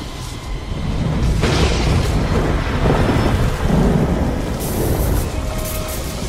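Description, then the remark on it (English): A loud lightning strike cracks and booms, followed by a heavy, rolling thunder rumble with a second bright crackle partway through, sustained and loud throughout with no voices. “You know what happens to a toad when it's struck by lightning?”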